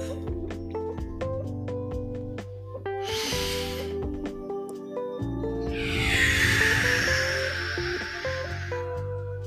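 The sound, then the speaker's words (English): Over steady, soft instrumental music, a short breathy inhale is followed a couple of seconds later by a longer, louder whooshing exhale, both airy: a deep cleansing breath taken during a meditation breathing practice. “Let's take a deep cleansing breath.”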